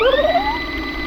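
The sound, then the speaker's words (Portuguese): A tape-rewind sound effect: a loud, buzzy whine that climbs quickly in pitch with a slight wobble, then levels off into a steady high whir, with no voices. “Olha, faz aquele isso, som viu? de... Tá rebobinando.”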